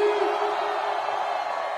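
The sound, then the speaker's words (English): A festival concert crowd screams together on a count of three, raising their hands for a family photo, in a sustained, loud roar of many voices blending into one dense wall of noise, holding steady without a break for the full stretch. “One, two, three, scream!”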